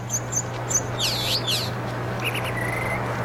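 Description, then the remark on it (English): Bird sound effects chirp and tweet in quick, bright bursts, with a swooping warbled call in the middle and a short trill near the end, all over a steady low hum. “Oh, uh, stop with the bird sound effects. All over the place.”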